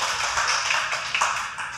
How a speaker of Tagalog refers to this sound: Palakpak sa Panginoon. Praise the Lord.